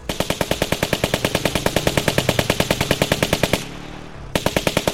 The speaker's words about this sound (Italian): Una sventagliata di Kalashnikov perfora la lamiera della sua auto e lo colpisce alla schiena.